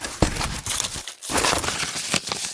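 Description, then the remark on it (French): Dry old paper sheets in poor condition rustle and crinkle as they are shuffled and handled, with sharp crackling bursts and a brief pause partway through; no one speaks. “les feuilles suivantes ne sont pas en très bon état, mais on arrive quand même à lire ce qui est inscrit.”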